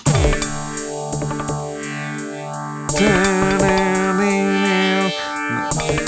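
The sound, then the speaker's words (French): A drum machine plays a steady, fast electronic beat pattern under buzzy, distorted synth tones with a sweeping filter; about halfway through, the pattern shifts to a brighter, denser variation as another pattern is selected. No one speaks. “Et à chaque pattern, si tu veux, il y a une variation de rythme. Il y a un morceau différent.”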